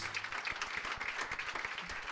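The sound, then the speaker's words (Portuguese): An audience at a church service applauding strongly for the Lord Jesus, a dense wash of many hands clapping at once with crisp sharp slaps throughout, holding an even loudness from start to finish with no voices over it. “Aplauda bem forte ao assim, Senhor Jesus.”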